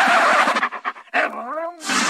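A dog barks in a quick run of short, choppy yips, then lets out a longer, rising whine-like bark, fairly loud, framed by bursts of noisy, hissing sound.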